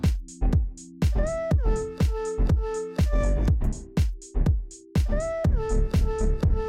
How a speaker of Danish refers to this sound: det man kan høre i baggrunden, det er en masse musik, der bliver spillet af, ud fra barne her på Uhørt Festival 2021.